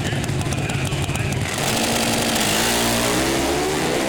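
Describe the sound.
Pro Stock drag racing motorcycles roar off the line in the NHRA Pro Stock Motorcycle final round, Matt Smith against Andrew Hines, engines screaming loud with pitch climbing steadily as they accelerate to about 196 mph, while an announcer talks excitedly over the din.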